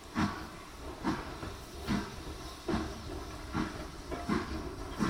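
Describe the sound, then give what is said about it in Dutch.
A steam train pulls away from a platform on a December day, its engine chuffing in steady, evenly spaced bursts over a constant background hiss, moderately loud, with no voices. “Op een decemberdag stapt het gezin met gevulde koffers op de trein.”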